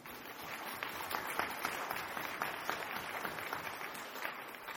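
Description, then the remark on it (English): A steady wash of audience applause, many hands clapping together at moderate volume for several seconds, dense and continuous with scattered sharper claps standing out. “Thanks for applauding my childhood.”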